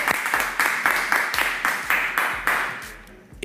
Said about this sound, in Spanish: Bueno, vamos por aplauso ¿Cuántos aquí están a favor de que el gobierno le dé un este, subsidio a todos los residentes de Puerto Rico para gasolina. Aplauso.